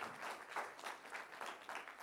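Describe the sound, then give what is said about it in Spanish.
An audience applauds loudly for the Lord, a dense wash of many hands clapping steadily without a break, full, with no voices rising above it. “Un aplauso fuerte, al Señor, déselo fuerte.”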